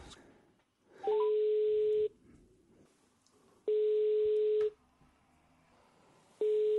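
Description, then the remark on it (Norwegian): A telephone ringback tone from an outgoing prank call: a steady, clear electronic tone sounds in roughly one-second bursts with short pauses between, three times, loud, with no voices. “Men han er en, en, en lytter av eh, poden, og eh, ja, vi får se om han tar telefonen.”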